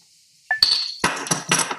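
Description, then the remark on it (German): A glass clinks once, then a person pours themselves a sip of a drink into it in short gurgling splashes. No one speaks. “Gieß, ich gieße mir einen Schluck.”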